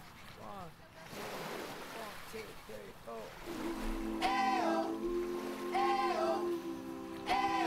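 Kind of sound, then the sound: nature, ocean waves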